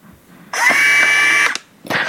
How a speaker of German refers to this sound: Tue es hier mal drauf und schalte es gleich mal an. Und jetzt wird man gleich hören, wie hier äh, gleich ein Motor angeht.